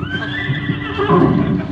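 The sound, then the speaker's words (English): A racehorse in a stall, wearing a blanket that says Blue Blazes, gives a strong, high whinny that wavers and trails downward, fairly loud, with a brief shuffle of movement beneath it and no talking. “He's got a lovely voice, too. Sounds a little like ….”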